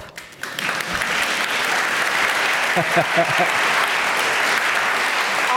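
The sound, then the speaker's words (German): A burst of crowd applause for the job of a midwife starts abruptly and holds steady, dense and loud, for about five seconds, with a short laugh briefly audible over the clapping. “Also, ich finde, man müsste fast einen Applaus geben für diesen wunderbaren Job.”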